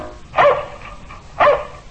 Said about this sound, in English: That's my dog, Tige. He lives in a shoe. I'm Buster Brown.